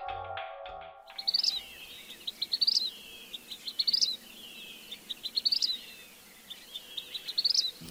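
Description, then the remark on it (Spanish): A vermilion flycatcher (titiribí, Pyrocephalus rubinus), a small flycatcher bird, sings a repeating phrase of quick, high chips ending in a bright trill, about five times in a steady rhythm, clear over a soft background hiss. “Eso que acaban de escuchar es un titiribí o phyrocephalus rubinus, un pequeño pájaro atrapamoscas cuyo macho es de un intenso color escarlata y que se y distribuye en Leticia, Amazonas, Caquetá, Baupés, Cundinamarca y Cauca.”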